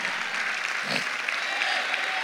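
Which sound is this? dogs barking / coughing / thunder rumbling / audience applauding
audience applauding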